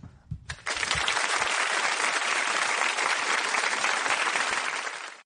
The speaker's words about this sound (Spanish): Un aplauso, un aplauso por el estudio no que es han por estudio. No, no es por ustedes, por un estudio serio que es esperanzador.